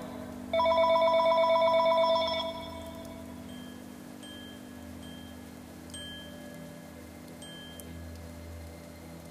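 A telephone rings for an incoming call from an unavailable number, a loud, rapidly trilling electronic tone for about two seconds, then falls away to a quieter steady hum with a few faint tonal blips. No one speaks.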